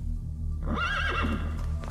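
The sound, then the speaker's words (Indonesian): A horse of a royal carriage lets out a loud, wavering whinny that rises and falls for about a second, over a steady low rumble with hooves clip-clopping in the background. “Terus datang. Ada memakai kuda kencana.”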